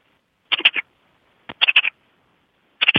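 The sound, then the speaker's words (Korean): A person imitates a magpie's chatter, giving three fairly loud bursts of harsh, rapid rasping calls separated by brief pauses, with no talking in between. “까치 소리를 낼 수가 있습니다.”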